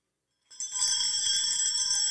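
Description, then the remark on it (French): A cluster of small jingle bells, separate bells hung together and worn on the wrist, is shaken. It starts abruptly after a short silence, then rings out in a steady, bright, shimmering jangle that continues fairly loud. “C'est vrai que le son, c'est vrai que c'est un grelot, mais qui est pas.”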